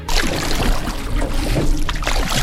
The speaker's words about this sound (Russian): Погрузили все это в три лодки, а чтобы добраться до таежной заимки, нам предстояло преодолеть 280 километров по реке Абакан.